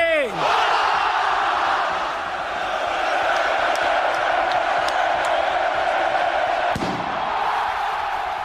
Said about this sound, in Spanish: Hemos escuchado el chupinazo del pasado año, el primero tras la pandemia de la COVID-19 que protagonizó el exfutbolista y exentrenador Juan Carlos Unzué.